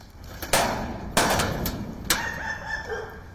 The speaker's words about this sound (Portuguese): A polícia usa um pé de cabra para arrombar o portão do imóvel.